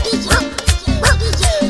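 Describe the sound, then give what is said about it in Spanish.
A dog gives a few short, loud barks, spaced about half a second apart, with a whiny tone stretching between them, answering over the telephone when its owner calls. “Lo llama por teléfono y de esta manera el perro le contesta.”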